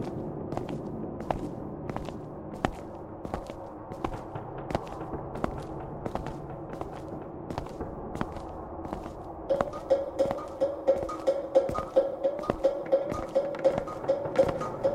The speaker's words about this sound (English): Did you hear that? Hear what? It's like a, a light thudding sound. Our footsteps? No, no, no. It was like a third set of steps.